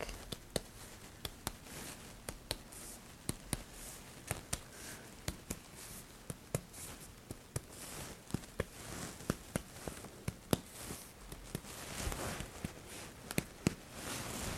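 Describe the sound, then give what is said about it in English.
Repeated short, dull taps on a patient's back during a physical examination, coming in quick irregular bursts of two or three over a quiet background, with no voices. “I'm going to tap on the back.”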